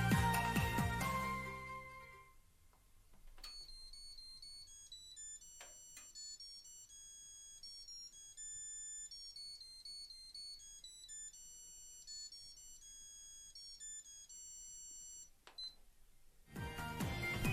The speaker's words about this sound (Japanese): こんな感じでね。つけて1分ぐらいでね、ストーブの灯油がなくなるというね、もうちょい早く教えてよって話なんですよね。